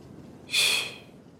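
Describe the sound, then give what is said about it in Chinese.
A single short, breathy whoosh of wind blowing over grass, hissy and fairly high-pitched, rises and fades within about half a second over a quiet background with no talking. “听风的声音，小草轻轻的颤抖。”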